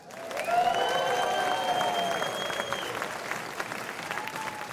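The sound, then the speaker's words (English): An audience claps loudly and steadily for several seconds in support of a seventh year of the Keep Christ in Christmas event, with a few high whistles and cheers rising above the dense applause before it slowly thins out. “If you'd like us to have a seventh year for Keep Christ in Christmas, I want to hear a big round of applause.”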